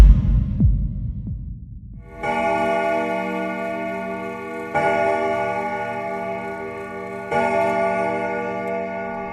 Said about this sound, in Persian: از صدای دینگ دینگ ساعت از خواب بیدار شدم